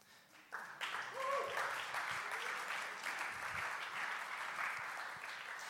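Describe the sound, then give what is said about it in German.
A crowd breaks into steady, warm applause for a person called to the front during a talk about faith. It starts abruptly and continues at a constant, dense level for several seconds, with a few faint voices and whistles mixed into the clapping. “Leute, ist das der Applaus für Jesus?”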